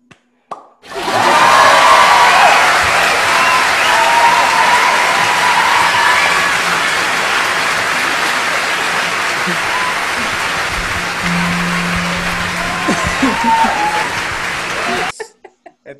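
A crowd applauds steadily and loudly for about fourteen seconds, a dense wash of clapping with faint cheers mixed in, before it cuts off abruptly.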